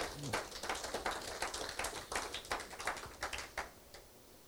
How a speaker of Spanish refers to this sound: Dale un aplauso a Dios. Si, si crees eso, dale un aplauso a Dios.